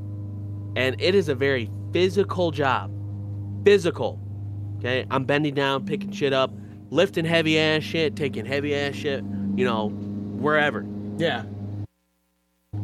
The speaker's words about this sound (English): oh, I love that ambient lawnmower sound.